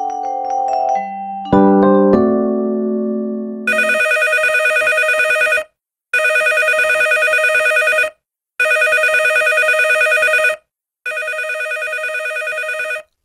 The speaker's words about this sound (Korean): 아우 참. 아우 아우 전화 좀 받아요. 엄마. 아우 시끄러워 잠을 잘 수가 없잖아. 아 뭐야 자고 있는데. 아 정말. 아우 뭐야 이 종소리.